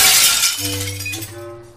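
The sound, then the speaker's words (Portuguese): A stained glass window shatters as a chair is thrown against it, a loud, bright crash of breaking glass, followed by a lingering low ring and scattered tinkling as the pieces settle and fade. “ele pega uma cadeira e joga contra os vitral.”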